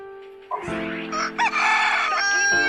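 A neighbour's rooster crows loudly, one long, strained cock-a-doodle-doo that rises, wavers and holds for a couple of seconds with no voices over it.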